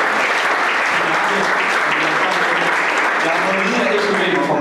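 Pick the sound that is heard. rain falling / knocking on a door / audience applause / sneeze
audience applause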